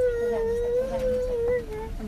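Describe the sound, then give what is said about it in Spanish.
A young girl cries in one long, unbroken wail that wavers slightly in pitch, fairly loud, breaking off near the end into quieter background noise. “Pero está llorando la niña, señora.”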